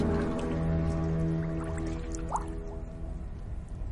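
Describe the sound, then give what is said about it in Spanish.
A woman lying in a full bathtub tips her head back and puts it under the water: muffled liquid sloshing with a low underwater hum, scattered drips and one brief bubbling splash partway through. No one speaks. “Mete la cabeza bajo el agua.”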